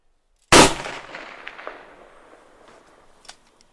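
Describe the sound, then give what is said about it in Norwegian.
A single loud gunshot fired by soldiers during a military exercise in Norway cracks sharply, then rolls away in a long echoing tail lasting several seconds, with a faint pop near the end. No one speaks. “Kart bak! Skudd kommer! Eld!”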